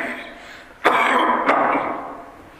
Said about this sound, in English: Sorry, I suddenly started this cough.